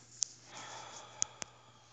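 A soft, slow, deep breath out, a gentle airy hiss rising and fading over about a second, with a few faint clicks and a low steady hum.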